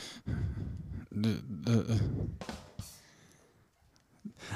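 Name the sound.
a woman coughing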